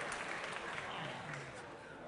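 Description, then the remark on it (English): A crowd applauds steadily, a dense wash of many hands clapping at an even, sustained loudness for the whole stretch, with no one speaking over it. “Hey, wild crowd.”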